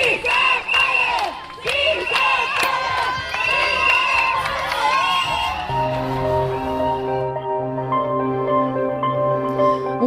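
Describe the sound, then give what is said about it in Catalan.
A large crowd of housing-rights campaigners outdoors in front of the Parliament shouts and cheers in loud rhythmic chants of "sí que es pot", celebrating a law's approval while uncorking cava bottles, voices rising together in repeated bursts before settling into a sustained roar of cheering. “Mentre això no passi, les entitats en defensa del dret a l'habitatge celebraven l'aprovació de la llei davant del Parlament amb crits de sí que es pot i destapant ampolles de cava.”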